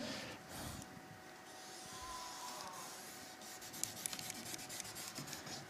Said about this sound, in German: Ich versuche es noch einmal aufzuzeichnen. Ich hoffe, ich bringe es besser an mit dem Stift. Das muss ich dann noch ein bisschen üben.